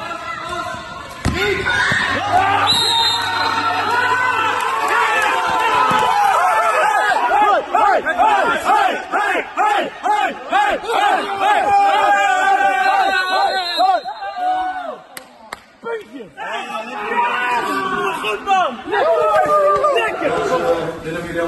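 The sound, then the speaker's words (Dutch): A team shouts and cheers loudly in a locker room, many voices overlapping in excited yells, with sharp slaps, claps and thuds scattered throughout and a brief lull before the celebrating surges again. “Eh, en dan hoor je nu de laatste vijf seconden en wat vreugde taferelen vanuit de kleedkamer.”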